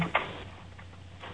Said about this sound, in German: Ein Kassettenrekorder ist das. Ja, meinst du? Hört sich so an, das Geklapper.